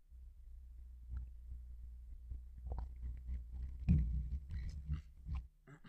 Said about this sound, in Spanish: Voy a tomar un sorbo de agua, permiso.